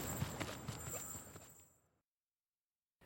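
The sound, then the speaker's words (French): Horse hooves clip-clop in a steady walking rhythm, a handful of clear strikes over a faint background hiss, then the sound fades away into silence. “Cette fois, notre héros part pour la trace, chez Diomède, un roi cruel qui règne sur le peuple des Bistones et qui garde dans ses écuries quatre juments mangeuses d'hommes.”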